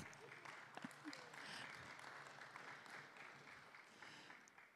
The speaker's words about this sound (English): He's like, there, let's give him a clap.